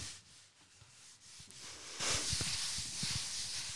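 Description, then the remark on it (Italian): A hand rubs across the cotton paper cover of a book with watercolour illustrations, a soft, dry, scratchy friction that swells louder about halfway through and continues steadily, with no voices. “Questo SMR tattile, veramente molto bella, una carta, una carta cotone praticamente per la copertina che poi va a, mm, ad essere perfettamente coerente con l'acquerello che vuole carta cotone.”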